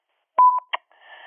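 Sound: voicemail beep tone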